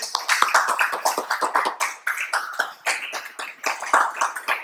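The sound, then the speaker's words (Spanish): A crowd applauds God steadily, many hands clapping in a dense, continuous wash of sharp claps that holds at an even, fairly loud level throughout. “Y todos decimos un fuerte y un fuerte aplauso a Dios también.”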